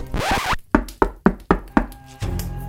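Five firm knocks on a door in a steady, even rhythm, loud, following a brief rush of noise at the start, with no voices.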